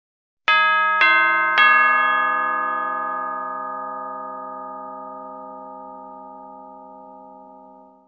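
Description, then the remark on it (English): A doorbell hanging beside Mr. Badger's little green door in the snow, rung by Mole, rings out with three quick chiming strikes in succession, the bright tones then ringing on and slowly fading over several seconds. No voices are heard. “Rat hits the door with his stick, and Mole rings the bell.”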